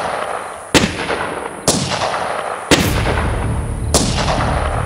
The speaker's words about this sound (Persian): صدای فریاد و تیراندازی در دشت تنین انداز شد